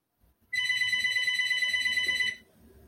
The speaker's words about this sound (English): I'm not getting up to get that phone. I'm not. Lots of people don't have a house. Lots of people don't have a house phone, but I have a house phone. It needs to stop ringing.